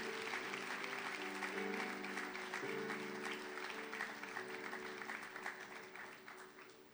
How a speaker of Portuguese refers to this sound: Se você crê, dê uma salva de palmas a Jesus.